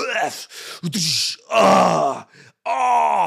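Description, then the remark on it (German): A voice imitates bodybuilders screaming while lifting weights in a gym, letting out a series of loud, drawn-out groans and grunts in bursts, with short pauses between them, forceful. “und diese dummen scheiß Bodybuilder-Typen, die dann immer so schreien und das Gewicht knallt irgendwo.”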